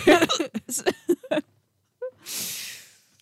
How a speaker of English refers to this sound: I hope you have hiccups the whole episode. I really hope I don't.